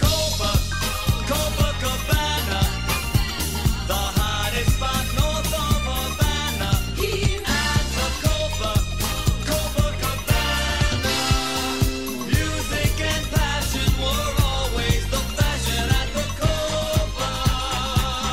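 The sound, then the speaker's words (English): A pop song released in 1978, an old-school Broadway-style stage musical number, plays loud and continuous, a full band with a steady driving beat, bright horns and layered instruments, with no one talking over it. “for those of you who have never heard …,”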